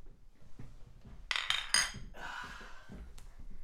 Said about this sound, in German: Man hat es vielleicht schon am Anstoßen gehört. Die Getränkeauswahl ist heute ein wenig verschieden.